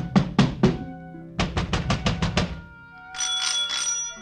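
A bright mechanical doorbell at number 14 Pembroke Street in Glasgow, Scotland, rung impatiently by a man on a March day in 1857: three strikes, a pause, then a rapid run of six, ending in a sustained trill. Loud, with no voices.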